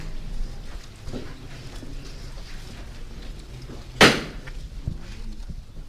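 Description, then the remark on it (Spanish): A single sharp metallic knock from the knocker of a procession float, positioned a few metres from a convent door, rings out loud, standing out against a low, steady murmur of background ambience. “Golpe de llamador.”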